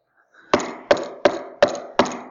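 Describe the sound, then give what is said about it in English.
Five firm knocks on a bedroom door, evenly spaced, each a sharp wooden thud with a short ring-off, with no voices. “there's a knock at the door, her bedroom door, and he's in the mood.”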